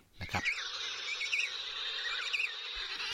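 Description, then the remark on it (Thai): A dense colony of penguins in Antarctica calling all at once, a continuous shrill chorus of overlapping squawks and warbling cries, steady and fairly loud with no voices. “สำหรับสัตว์ที่อยู่ประจำถิ่นณนะทวีปแอนตาร์กติกาหรือขั้วโลกใต้ นะครับ ก็คือตลอดทั้งปีอาศัยหากินอยู่ที่ขั้วโลกใต้เท่านั้น ก็จะมีในกลุ่มของแมวน้ำแล้วก็กลุ่มของ นกเพนกวิน”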